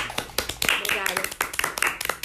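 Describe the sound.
A handful of sharp, irregular hand claps ring out over overlapping voices, each clap a quick bright smack, loud enough to cut through the chatter.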